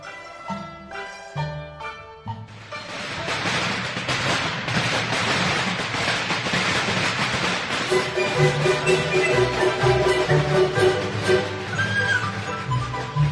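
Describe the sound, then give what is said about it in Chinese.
Firecrackers set off at a traditional Chinese-style wedding to celebrate the family feast: a few scattered pops, then a long, loud, dense string of rapid crackling bangs, with festive music and tonal melody running underneath throughout. “花轿到门前，宾主站两边，鼓乐迎淑女，鞭炮庆家宴，动乐迎新人。”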